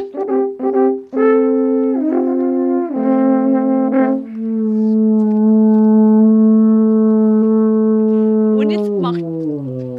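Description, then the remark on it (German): An alphorn is blown at an alphorn-blowing lesson in Garmisch-Partenkirchen in the Werdenfelser Land, playing a few short, choppy notes, then stepping between sustained tones into one long, loud, steady low note that finally slides downward, with no talking over it. “Und ich freue mich, dass ihr alle da seid beim Alpanblasen.”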